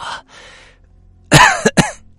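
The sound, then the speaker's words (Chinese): An elderly person's violent coughing fit: faint wheezy breaths first, then a loud, harsh rasping cough followed by two sharp, explosive hacks in quick succession, with no speech. “那个人头也没回头的说，声音苍老而又缓慢，夹杂着一阵撕心裂肺的咳嗽声。”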